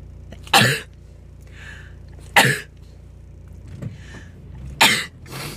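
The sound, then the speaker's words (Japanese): Three loud, sharp sneezes spaced a couple of seconds apart, each a sudden explosive burst, with a low steady rumble and faint breathy sounds in between. “くしゃみ”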